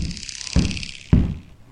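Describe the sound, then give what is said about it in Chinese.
Three heavy, booming thumps from the ceiling of a flat in a large apartment complex, just after noon, land at roughly even half-second intervals, each with a deep low rumble, over a steady faint hiss. No one speaks. “某一天，刚过中午的时候，太田先生独自看着电视，没想到天花板传来了咚咚咚很大的声响，”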